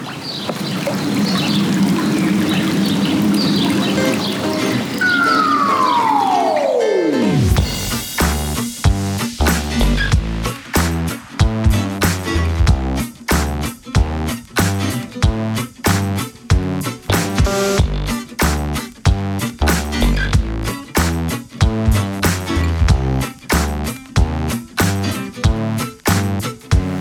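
Steady rushing, trickling water of a brook beside a hiking trail runs for several seconds before a falling swoosh cuts it off and loud rhythmic music with a driving beat takes over.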